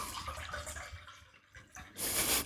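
Wine is poured into a glass in a living room: a soft, uneven trickle that swells into a louder, bright splashing gush near the end, with no voices.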